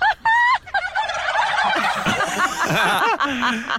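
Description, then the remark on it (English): A flock of turkeys gobbles loudly in response to a woman's laughter, their warbling, rattling calls overlapping in a dense, continuous chorus that swells and bubbles for several seconds. “But when she laughs, they laugh, and then this is when this big moment happened.”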